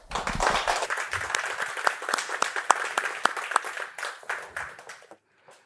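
An audience breaks into applause to congratulate someone, a dense patter of many hands clapping steadily before thinning out and fading to a few scattered claps near the end.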